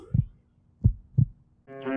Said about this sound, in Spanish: Tu latido.